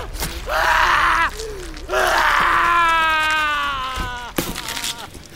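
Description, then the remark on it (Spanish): A man screams in pain: two long, loud, strained cries, the second stretched out and sagging in pitch, followed by a short ragged gasp. “gritaba de dolor.”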